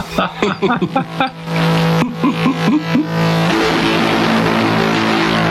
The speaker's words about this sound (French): C'est du drone. Ça rappelle un peu le bloop, tu sais, l'infrason euh, dans l'hémisphère sud, là, pour rappeler Cthulhu.